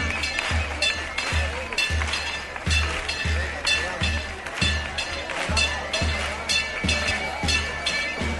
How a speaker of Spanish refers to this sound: Ya estamos viendo la casa de hermandad del Rocío de Huelva. Este sonido es el de sus campanas.